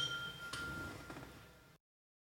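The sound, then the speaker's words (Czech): Glasses clink together in a toast, a bright ringing chime that lingers briefly, followed by a softer second knock, all quiet with no voices. “Na to se napijem.”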